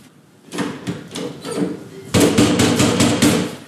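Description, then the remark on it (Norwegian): Police officers knocking heavily and rapidly on an apartment door at an address in Grønland after a report of loud music and noise: a first burst of several firm raps, then a louder, insistent series of pounding blows, echoing slightly. “Hallo, det er fra politiet! Kan du lukke opp?”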